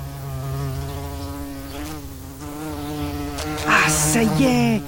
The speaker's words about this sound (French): je l'entends ton repas. Une petite mouche, ce n'est qu'un amuse-bouche.